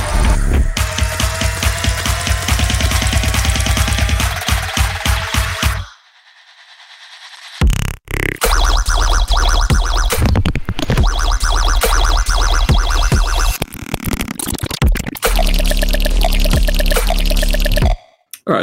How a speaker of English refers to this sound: So I made this like wonky flute noise in massive again.